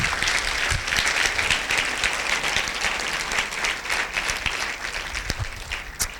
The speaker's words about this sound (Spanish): Yo creo que Dios merece un aplauso. Amén.